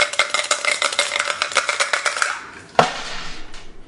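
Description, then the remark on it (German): Dice rattle rapidly in a cup for about two seconds, a dense run of bright clicks, then after a brief pause a single sharp clack as they land. “Schmeiß die Würfel an.”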